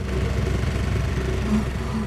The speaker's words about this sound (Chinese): 小拖拉机听了，决定鼓起勇气，他勉强离开了车棚，让引擎隆隆作响。